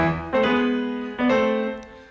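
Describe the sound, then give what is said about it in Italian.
A short orchestral phrase from a symphony's introduction, the answering figure to an earlier motif that later becomes the allegro theme: two sustained chords, each entering with a firm attack and holding steadily, rich and full at moderate loudness with no voices present. “Addirittura nell'introduzione c'è un momento in cui l'orchestra fa così, con un eco, e la risposta a questo disegno è quest'altro.”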